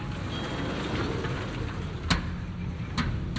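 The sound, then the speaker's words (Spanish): Steady outdoor street noise with a low traffic rumble from vehicles, broken by two short sharp clicks a second apart. No one speaks. “Estamos fuera, en la calle.”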